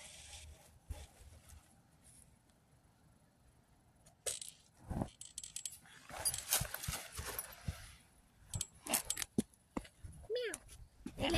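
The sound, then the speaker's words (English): A male puppy makes small, scattered noises, brief snuffles and squeaks mixed with rustling and scuffling movement. The sounds come in irregular bursts, busier toward the end. “Thank you, puppy. What a good boy you are.”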